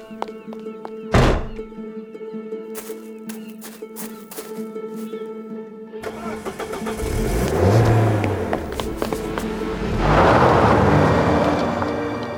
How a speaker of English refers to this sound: and then a car going